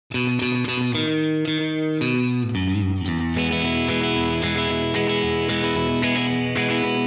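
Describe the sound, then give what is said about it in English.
An electric guitar plays a steady, twangy riff of repeated low notes and chord stabs, each note trailed by a quick slapback echo. It's loud and bright, with no voices. “Let me um I need a bit of echo, a little bit of slap back.”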